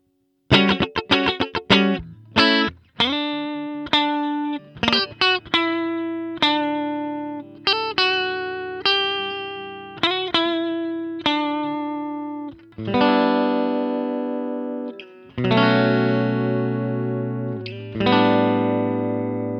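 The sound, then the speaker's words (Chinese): The built-in distortion of a guitar amplifier designed for clean tones: a run of quick picked notes, then sustained chords ringing out with a gritty, buzzing edge. Loud and alone, with no talking. “哎，这个音箱本身呢是为轻音设计的，所以呢它自带的失真啊，我个人觉得很难听。”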